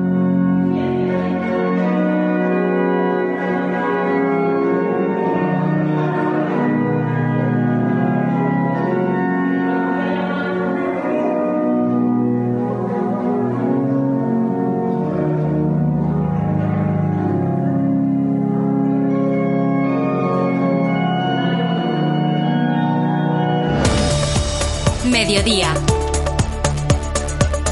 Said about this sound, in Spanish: Así, así es como suena el órgano de Santiago, tan solo al 5% de su capacidad.